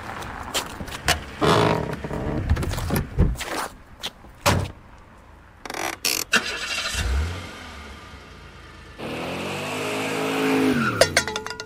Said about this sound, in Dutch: u hoort hem weg, eh, de, de, de politieagent wegscheuren met de auto